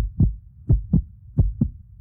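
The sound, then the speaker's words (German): Deep, thumping heartbeat pulses in paired lub-dub beats, about three double beats in two seconds, fairly loud with no talking. “Zum Abschluss von dem Podcast wünsche ich euch und eurem Herz gute Gesundheit und wenn heftiges Herzklopfen, dann nur in einem schönen Zusammenhang.”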